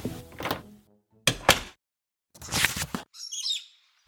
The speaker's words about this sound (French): Ah non, ce sont des loriquets, des oiseaux sauvages